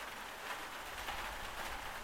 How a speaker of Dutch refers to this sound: Regen voelt goed. Ik hou ervan om er doorheen te lopen.